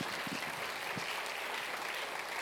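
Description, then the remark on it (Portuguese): An audience applauds the Lord together with joy, a steady wash of dense clapping that stays even and sustained throughout, with no voices breaking through. “Nós podemos aplaudir ao Senhor com alegria.”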